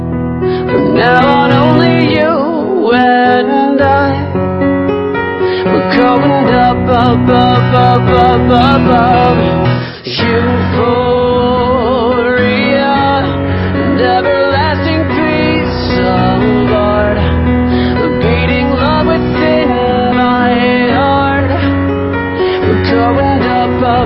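A stripped-back acoustic version of this year's Eurovision-winning song plays loud, a sung melody carried over steady accompaniment, with only a brief dip in the middle before it continues.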